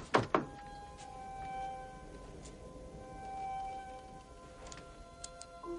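A house door unlatches with two quick thunks, then swings open with a faint, drawn-out creak as a girl opens it. No one speaks.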